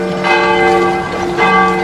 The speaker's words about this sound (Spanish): Muy tempranito sonaban las campanas de las iglesias. Era hora de levantarse.